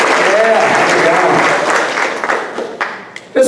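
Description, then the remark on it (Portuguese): An audience at a church service applauds the Lord for the young people who built the stage set, in a sustained, dense burst of clapping with scattered cheers and voices mixed in, fading toward the end as a single voice begins to speak. “Um aplauso ao Senhor para ver os nossos jovens, amém.”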